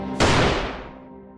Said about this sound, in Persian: مسعود با عصبانیت یک گلوله داخل پیشانیش شلیک کرد